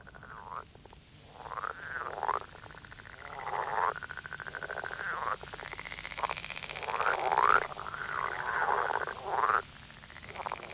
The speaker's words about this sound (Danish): De vågner først i maj, og de begynder først at kvække sidst i maj og i juni måned, og kvækker sådan ved Sankt Hans tid ganske voldsomt.